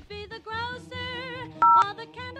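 A single loud, steady telephone keypad tone beeps for about a quarter second, standing out above a busy layer of melodic, voice-like music playing throughout.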